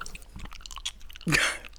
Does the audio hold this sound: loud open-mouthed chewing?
yes